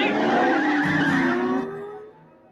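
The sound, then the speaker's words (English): Loud tires squeal and skid as a car engine roars during a car chase, the screech sliding downward in pitch before fading out after about two seconds. “Solid car chase there.”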